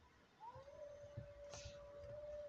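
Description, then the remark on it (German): A wolf howls in one long, steady, mid-pitched note that slides up at the start and holds for about two seconds over a low, rumbling background. No one speaks. “Willst du mich verarschen? Wölfe, geht auf den anderen.”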